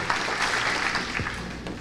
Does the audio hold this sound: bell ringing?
no